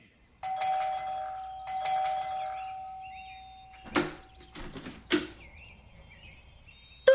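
A doorbell at a flat's door chimes twice in quick succession on a Saturday morning, each ring bright with a lingering tone, followed by a couple of soft knocks or thumps at the door.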